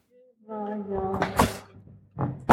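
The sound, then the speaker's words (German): The door to a recording room creaks open with a drawn-out, groaning squeak, followed by a sharp latch clack and a final knock or thud of the door moving, fairly loud. “Wir starten aber erstmal hinter der Tür zu unserem Aufnahmeraum”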